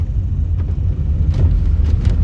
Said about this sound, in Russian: Э, блин, вы слышите это шипение, нет? Печка что-то, по-моему, шипит.